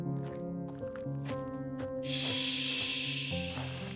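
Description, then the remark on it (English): A sharp, steady hiss of a stim injection bursts in partway through and holds for about two seconds, over a low sustained musical drone with faint soft thuds before it. “The stim injection hissed.”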